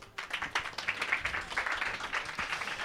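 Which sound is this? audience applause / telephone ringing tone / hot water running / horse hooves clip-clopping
audience applause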